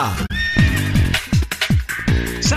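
A loud horse whinny sound effect with rapid, shaky descending pulses and bright high harmonics, lasting a couple of seconds with no voices.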